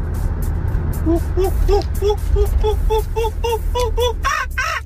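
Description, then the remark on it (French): A person imitates a monkey, as a forest animal for listeners to guess, with a run of short, rhythmic hooting calls that build into louder, higher-pitched shrieks, all over a steady low engine rumble. “C'est un singe, mais début, j'ai cru que j'allais dire une chouette ou un hibou au début.”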